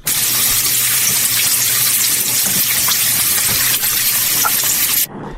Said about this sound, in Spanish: ¿Cuál es el sonidito? Es un sartén con aceite caliente dorando unos pescaditos.